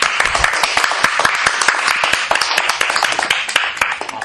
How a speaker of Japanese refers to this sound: 拍手